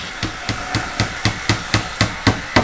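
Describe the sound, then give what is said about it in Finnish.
Rapid, steady hammer blows ring out about four times a second, around ten sharp strikes in a row, against a low background rumble of a construction site in Spain with no talking. “Rakentamisen äänet ovat palanneet Espanjaan. Rakennusmelu on täällä ikään kuin musiikkia korville.”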